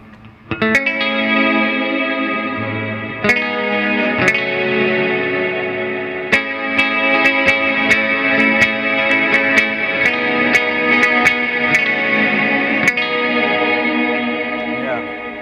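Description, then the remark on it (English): An electric guitar rings out through a modulated reverb pedal, with chords strummed every second or so and washing into a sustained, shimmering, spacey haze, played alone at a steady, fairly loud level. “I've been on the kick of using, which one is it here? The, yeah, this modulated uh, reverb.”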